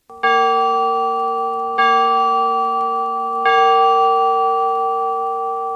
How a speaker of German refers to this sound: Etwa eine Viertelstunde vor der festgesetzten Zeit der Beerdigung wurde vom Kirchentum mit der Glocke ein Zeichen gegeben.